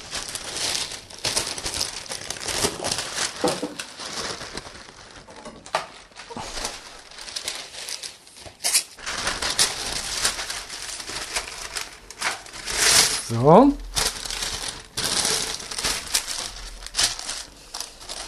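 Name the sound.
paper being crumpled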